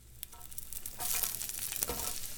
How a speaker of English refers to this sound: I'm frying up some delicious hash browns.